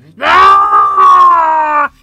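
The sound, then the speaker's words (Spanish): A person voices a long, loud whining groan, holding a steady high pitch for nearly two seconds, mimicking the strained engine noise of a city bus in Bogotá. “Y aquí en Bogotá es el Transmedio grita todo el tiempo, es muy ruidoso.”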